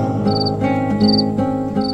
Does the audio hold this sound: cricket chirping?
yes